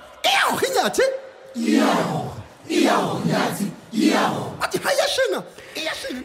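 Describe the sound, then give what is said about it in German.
A South African lead singer's gliding voice trades off with loud, full bursts from a choir, like call-and-response between a soloist and a choir, energetic. “Stimmen, unbändige Kräfte, die da freigesetzt werden, so scheint es von diesen Chorstimmen aber vor allem auch vom Vorsänger, der Stimme im Mittelpunkt, die gehört dem charismatischen Sänger und Geschichtenerzähler, dem Südafrikaner”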